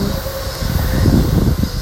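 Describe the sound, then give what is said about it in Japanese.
A train rumbles past, a steady low roar with rhythmic clatter that swells slightly in the middle, with no voices over it. “ちょっとね電車が通ってうるさいかなって思う方いらっしゃったら申し訳ございません”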